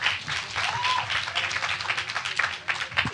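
A crowd applauds steadily, many hands clapping in a dense, continuous patter that stays fairly even in loudness for a few seconds, with faint voices mixed in.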